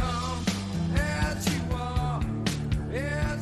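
A grunge rock song plays at a steady mid-tempo, with regular drum hits about twice a second under sustained, droning guitar and a melodic vocal line, fairly loud and clear, with no talking over it.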